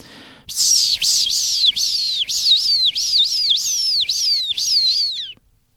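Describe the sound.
A person mimics the shrill, screaming calls of a common swift: about ten piercing high-pitched notes, each sliding downward, repeated in a quick steady rhythm, loud, with no talking.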